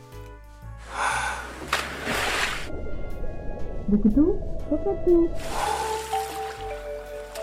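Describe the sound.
Bursts of splashing water echo in a swimming pool, with softer watery sloshing and a few drips in between while people talk.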